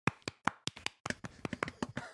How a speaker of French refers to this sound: Ah. Bravo, bravo. je pense que je peux vous applaudir.